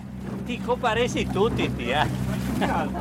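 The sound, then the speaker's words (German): A large motorboat speeds at high speed across the path of a rowing boat on a lagoon, its engine droning steadily and loudly, the low hum running under a person talking throughout. “Ein großes Motorboot schneidet uns mit hoher Geschwindigkeit den Weg ab und verärgert uns.”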